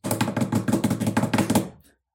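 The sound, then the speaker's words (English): A cat drums on a door: a rapid run of soft, thumping knocks, about a dozen quick taps in an uneven drumming rhythm, fairly loud, ending abruptly after a couple of seconds. “on the he door. Drums”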